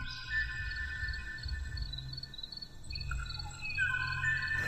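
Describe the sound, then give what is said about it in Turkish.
Song of a male Kauai ʻōʻō, the last of its extinct species: thin, sustained high whistles and drawn-out tonal notes over a steady low hum, faint, with a few notes shifting pitch near the end; no one speaks. “İlk defa bir kavai kuşu sesini duydum.”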